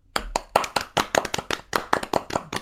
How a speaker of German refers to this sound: Das ist eigentlich ne? mal ein Applaus wert jetzt eben, oder?